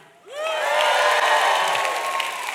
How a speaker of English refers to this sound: we should just start. Let, let, we should just start cheering. I think that should be like a celebration, right? Let's just practice.